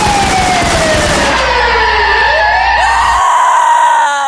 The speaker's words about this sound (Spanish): Sheriff, qué hermoso vehículo policiaco. Me deja, me deja tocar la sirena.